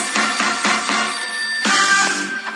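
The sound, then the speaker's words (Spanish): A telephone rings loudly, a rapid series of bright electronic trills repeating about four times a second, then a brief sustained chiming burst near the end. No one speaks. “Agarre su teléfono, marque y comenzamos.”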